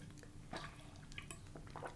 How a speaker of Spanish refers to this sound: Vamos a darle un trago para empezar con este episodio con la garganta bien hidratada porque vamos a platicar.